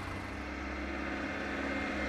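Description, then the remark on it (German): A steady, even vehicle hum with a low drone and a soft electric whine, holding constant as an electric bus drives by. No one speaks. “Als Elektrobus.”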